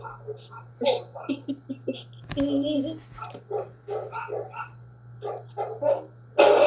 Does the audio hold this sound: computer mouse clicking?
no